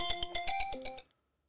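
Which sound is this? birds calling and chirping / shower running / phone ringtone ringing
phone ringtone ringing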